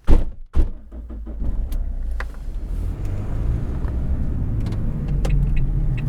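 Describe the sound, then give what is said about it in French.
Two solid thunks of car doors shutting in quick succession in Haute-Corrèze, then an engine starts and a steady low rumble of the car driving fills the rest, fairly loud. “Allez, en, voiture, Simone.”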